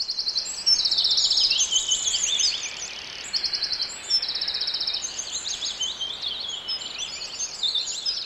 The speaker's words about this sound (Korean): 새도 밤에는 자야 되기 때문에 밤에 이렇게 우는 새는 몇 안 되죠. 뭐 부엉이 정도? 지금 이렇게 지저귀는 새는 아마 우리보다 먼저 아침을 맞이한 새들의 지저귀 소리일 것 같아요.